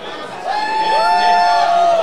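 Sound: crowd cheering and whooping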